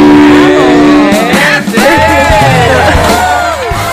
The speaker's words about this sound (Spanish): Un aplauso.